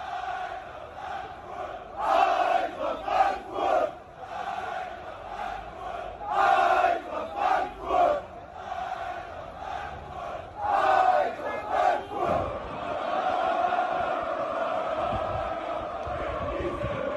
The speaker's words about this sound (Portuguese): E daí, de repente, chegou na hora do jogo, você tinha 35 mil torcedores do Eintracht no Camp Nou. Cara, isso é muito bom. Isso é muito bom. Inclusive tem um, um vídeo muito maneiro da, da torcida cantando na, na praça.